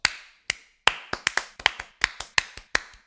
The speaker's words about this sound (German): Also das heisst, das heisst, wir haben hier unsere erste offizielle Gewinnerin von «Sie hören Privatchat Podcast» am längsten, darum einmal klatschen.